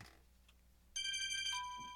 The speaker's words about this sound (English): Come on, phone, hush up. There we go.